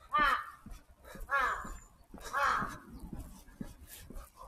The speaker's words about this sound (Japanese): あ、カラスだ。リスかと思ったらカラスだった。